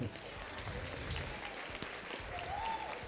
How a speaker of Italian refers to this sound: Non so se hai sentito gli applausi.